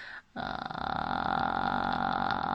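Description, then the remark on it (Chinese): A single sustained vocal fry demonstration, a low, creaky, crackling voice held steadily for about two seconds after a brief pause, fairly loud with no words spoken. “所以在这个时候呢，发气泡音是比较容易的。”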